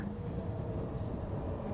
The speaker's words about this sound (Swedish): Sa tågkvinnan och sen stannade tåget vid en glänta.